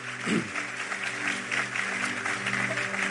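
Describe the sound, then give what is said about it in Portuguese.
An audience breaks into steady, dense applause, many hands clapping together for several seconds, with a faint sustained musical tone underneath. “Vamos aplaudir a ele.”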